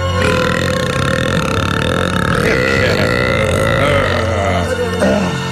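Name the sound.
loud burp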